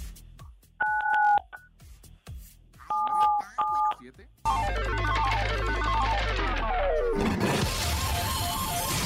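Several quick dual-tone telephone keypad beeps sound in short bursts as the number 977 is pressed on a phone, clear and fairly loud, then give way to a dense, noisy burst of music-like sound with a heavy low rumble.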